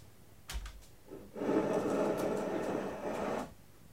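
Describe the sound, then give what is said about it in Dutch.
Elevator doors slide open with a steady mechanical rumble lasting about two seconds, preceded by a couple of faint clicks. Moderately loud, with no talking. “Ja, de deur is open, stappen in.”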